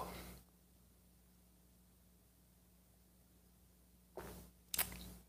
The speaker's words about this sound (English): Fill it with your favorite liquid. I like coffee. And join me now for the unparalleled pleasure of the dopamine of the day thing makes everything better. It's called the simultaneous sip. It happens now. Go.